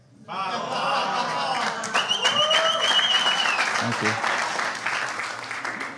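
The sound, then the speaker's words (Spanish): A studio audience bursts into loud, sustained applause and cheering, dense clapping filling the room for several seconds, with a sharp whistle rising above the crowd midway through. “el estudio se ha vuelto loco.”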